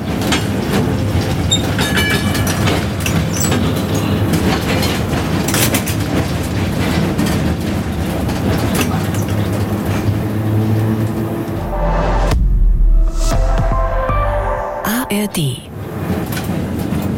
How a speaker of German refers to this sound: sind wir diesmal in den kleinen Zügen hier unterwegs, den historischen Straßenbahnen.